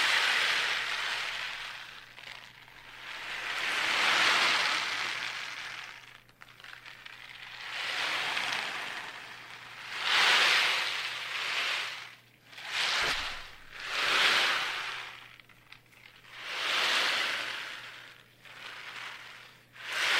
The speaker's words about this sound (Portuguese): Esse é um tambor do mar, tá? Ele, como vocês puderam ouvir, ele imita o som do mar, das ondas, né?